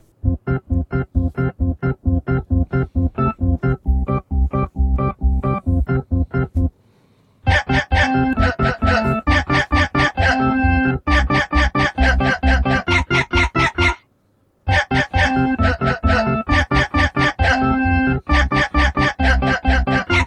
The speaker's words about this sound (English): any true fan of Silent Hill 2 will be upset that we don't play this. Absolutely. Yeah. This is the dog ending credit song. Let's go ahead and give this a bit of a listen here.